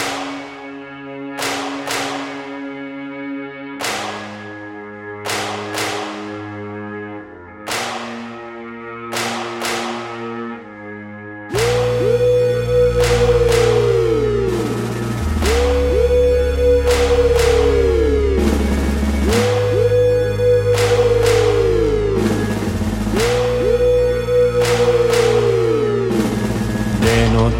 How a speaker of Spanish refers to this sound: Así que es una maravilla de Gijón que ha sacado un disco nuevo y que suena así de bien.